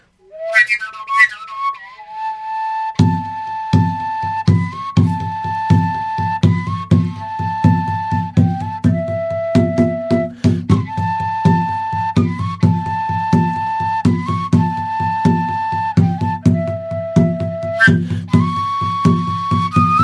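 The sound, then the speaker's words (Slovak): A folk fipple whistle in A plays a bright, lilting melody, joined after a few seconds by a steady, pulsing low accompaniment that keeps a driving rhythm underneath. No one speaks. “Že ty keď máš píšťalu, dajme toto to je Ačková,”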